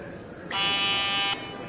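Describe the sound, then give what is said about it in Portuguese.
A single loud, steady electronic alert tone for a stock exchange trading halt blares for just under a second, harsh and buzzy, then cuts off abruptly over a faint background hum. “Então, a próxima vez que a bolsa parar. Porque você poderia ouvir esse, esses toques que a gente selecionou, você pode ouvir em casa, no home broker, né?”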